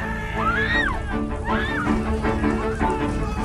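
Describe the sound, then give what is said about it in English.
Water sloshes and splashes repeatedly as stablemen, groundskeepers and housemaids toss buckets of water onto the flames of a burning house, over a dense, busy background with wordless shouting voices rising and falling. “Groundskeepers and housemaids work together, shoving buckets at anyone not already tossing water onto the flames.”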